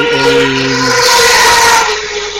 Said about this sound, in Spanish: ¿Qué es eso? Perdón. ¿Qué es eso? una motocicleta.